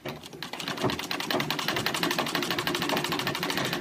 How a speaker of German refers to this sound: Anfangs noch händisch, später mit Hilfe der Nähmaschine, der eine elementare Bedeutung in der Erfolgsgeschichte der seriellen Fertigung von Kleidung zukommt.